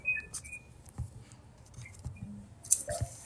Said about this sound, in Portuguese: Eu tô ouvindo um barulhinho de água aí no fundo. Tem algum microfoninho aí que tá aberto.